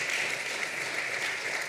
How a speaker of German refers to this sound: Okay, einen zweiten Applaus.